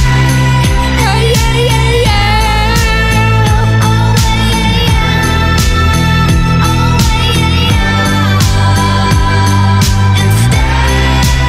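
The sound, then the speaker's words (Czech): A slow, relaxed song plays at steady volume, with a deep sustained bass line, smooth layered harmonies and soft rhythmic hits, creating a laid-back, sensual mood with no talking. “Za mě je to, jak říkám, podobná vlna, podobný styl, něco tak jako v klidu.”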